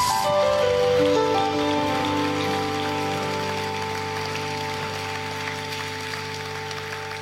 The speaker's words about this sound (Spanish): Vamos a darle un aplauso al Rey Reyes.